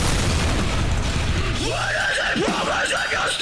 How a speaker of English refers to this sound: More explosions than a low budget porno.